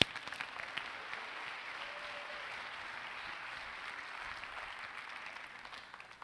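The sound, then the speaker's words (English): An audience claps steadily in praise to the Lord, a dense wash of many hands sustained for several seconds, then slowly thinning toward the end. No voices stand out over the applause. “Would you give the Lord one more praise?”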